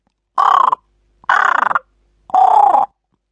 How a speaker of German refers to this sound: In dem Moment fliegen drei Krähen vorbei.